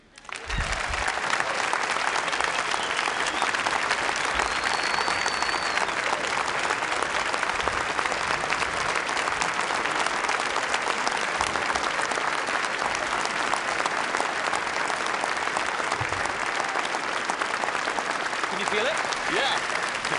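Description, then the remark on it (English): Sustained applause from a large audience at the end of a talk, a dense, even wash of clapping that holds steady at full strength for about twenty seconds with no pauses. “Actually, the, the, uh, this is the first time I felt applause on the vest.”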